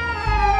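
A police siren wails loudly in a brief burst, its bright tone sliding slightly downward as a low rumble swells underneath. No one speaks.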